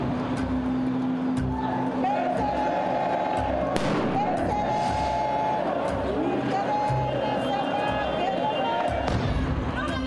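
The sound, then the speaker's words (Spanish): A loud firecracker bang cracks out over a dense, noisy crowd, with shouting voices and a few duller thumping pops scattered through the rest of the scene. Hooded people at a rally are throwing firecrackers at the Secretaría de Gobernación building on Bucarelli; seven were thrown and four exploded. “hicieron un mitin y luego se despidieron así, con encapuchados tirando, lanzando petardos al edificio de Bucarelli de la Secretaría de Gobernación.”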